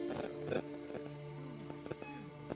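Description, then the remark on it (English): A cat named Whisper makes a strange, warbling vocal noise, its pitch sliding up and down in a few short bursts over a steady high-pitched hum in the background. “And hello to Whisper's weird noise.”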